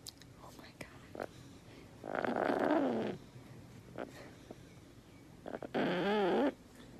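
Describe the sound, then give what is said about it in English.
A chicken gives two soft, warbling purr-like clucks, each lasting about a second, heard up close against quiet background noise with a pause between them. “we think this chicken is sleeping, but they said it's it's like purring or clucking.”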